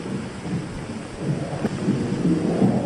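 A steady, rushing roar of wind fills a drafty nunnery on a Himalayan mountaintop about 9,000 feet up, low and continuous with gusty swells, like air howling through the building. No one speaks.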